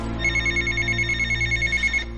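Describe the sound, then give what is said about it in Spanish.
A telephone rings with a rapid, trilling electronic warble, steady pulses repeating for about two seconds, fairly loud over a low background hum, with no one talking. The phone wakes M, who is in bed beside her husband. “El teléfono despierta a M que está en la cama junto a su marido.”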